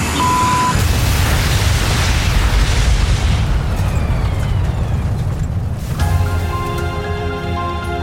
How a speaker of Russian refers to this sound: Самолет упал на лесную поляну, разрушился и сгорел. Все находившиеся на борту погибли в момент столкновения.